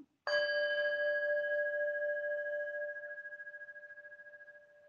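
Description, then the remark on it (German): A singing bowl is struck once and rings out with a pure, sustained tone that hums and pulses gently as it slowly fades, heard alone. “Und diese Klangschale, also das ist eine meiner Lieblingsklangschalen, die ich eben dann hier auch habe. Ich schlage jetzt nur mal dann kurz an.”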